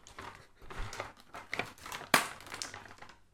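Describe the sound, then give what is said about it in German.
Crinkly plastic packaging being crumpled and torn open, with a run of rustling and crackling bursts and one sharp, loud rip near the end, no talking over it. “Scheiße, Packung geht nicht.”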